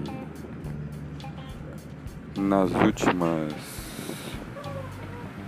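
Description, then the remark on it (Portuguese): Steady engine rumble and road noise fill the inside of a moving public bus, a constant low drone running beneath a man speaking. “Não sei se você consegue discernir pelo ruído dentro de um ônibus público.”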